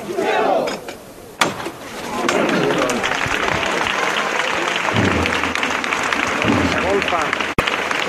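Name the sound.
crowd applauding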